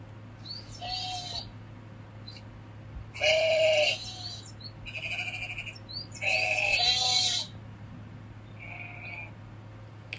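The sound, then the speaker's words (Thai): Sheep tended by a shepherd boy bleat several times over a low steady hum, a few wavering calls spaced out, with two louder, longer bleats in the middle and fainter ones at the start and end. “เออน่าเบื่อจริง ๆเลยต้องมานั่งเลี้ยงแกะพวกนี้ทุกวันเลยไม่มีอะไรสนุกสนานอะไรสักอย่างเลย”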